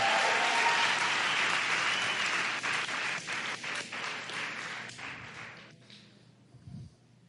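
A crowd breaks into sustained applause, a dense wash of many hands clapping that gradually thins and fades out toward the end, with a brief low thump near the close.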